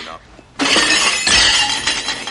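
A waiter drops a tray of plates, which crashes down with a sudden loud smash, followed by a second or so of clattering, shattering crockery, starting abruptly after a quiet moment.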